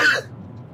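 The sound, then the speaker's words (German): A single quick sneeze bursts out, sharp and breathy, then fades into a quiet low background hum with no talking. “Gesundheit”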